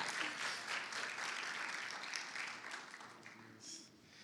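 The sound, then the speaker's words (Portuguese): Steady audience applause welcoming a guest speaker, a dense crackle of many hands clapping at full strength for several seconds, then gradually thinning out as it fades toward the end. “Então, eu queria que vocês recebessem ele muito bem, com uma salva de palmas.”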